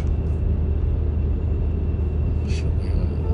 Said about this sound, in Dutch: Oh, godverdomme, kijk uit, man. Dikke truck. ben bijna over de middenlijn heen.